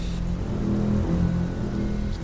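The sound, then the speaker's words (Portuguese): Heavy rain pours down during a storm in a steady, dense hiss, with a low droning rumble running underneath throughout. No one speaks. “Cuidado, Clarice, que a chuva está forte.”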